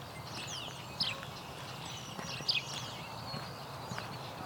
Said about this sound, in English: As you can hear, there's quite a dawn chorus here.